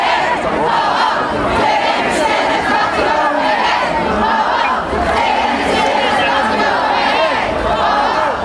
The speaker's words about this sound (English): The crowd was also chanting, women's rights are human rights.